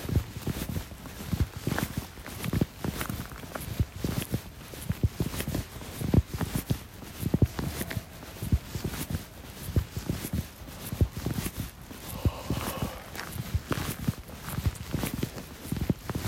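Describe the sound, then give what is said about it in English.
Steady footsteps of a person walking outdoors on a hard surface, a regular walking rhythm of crunchy, percussive steps continuing throughout with no talking, over a low background rumble. “And, uh, I now am going for a walk because I can, because I feel like it, and recording a podcast because I like to hear myself talk.”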